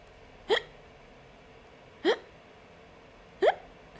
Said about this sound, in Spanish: ¿Qué movimiento estás haciendo cuando tienes el hipo?